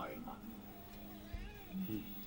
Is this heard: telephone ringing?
no